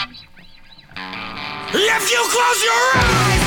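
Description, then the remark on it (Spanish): A short spoken line gives way to the beginning of a hardcore punk song bursting in, loud distorted guitar building into a dense, driving wall of sound with shouted vocals over it. “Esta, suena así, ¿eh? Suena así que es el principio.”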